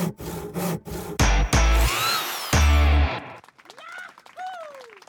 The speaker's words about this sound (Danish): en rytmisk collage af værktøj, nærmere bestemt en sav, hammerslag og en boremaskine, monteret med et musikalsk element i form af nogle klassiske rockgitarer